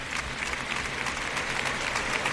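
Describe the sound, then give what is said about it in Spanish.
A bullring crowd gives a sustained ovation for matador Marcos Linares after the bull of his alternativa, dense steady applause with many hands clapping at once, loud and unbroken throughout, with no one speaking over it. “Ahora saluda la fuerte ovación del público Marcos Linares, que va a dar la vuelta al ruedo.”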